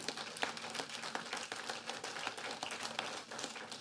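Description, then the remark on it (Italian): A church audience applauds for the Lord, many hands clapping together in a dense, continuous patter that holds steady for a few seconds, with no voices over it. “Fate questo applauso per il Signore.”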